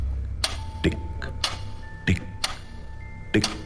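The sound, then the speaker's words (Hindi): A clock's second hand ticks steadily as the clock nears 11 at night, its sharp clicks spaced roughly every half second, over a low background hum with a faint steady tone. “घड़ी को एक टक देख रहे हैं और सेकेंड्स की सुई टिक”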